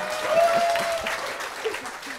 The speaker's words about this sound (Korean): 네, 우리 청수님께 큰 박수 부탁드리겠습니다.